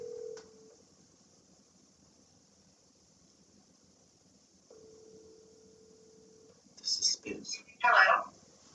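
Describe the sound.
A phone call to the speakers' mother rings out on the line, two steady ringback tones separated by a long pause, over faint hiss, then the call connects and a brief muffled voice answers.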